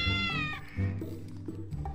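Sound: cats meowing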